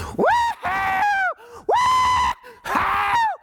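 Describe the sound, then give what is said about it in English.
A single voice imitates rowdy, dressed-up partygoers with drinks, letting out three long, loud whooping yells in quick succession, each rising sharply and then falling, with brief gaps between them. “you know, and they're yelling and they're having the time of their life.”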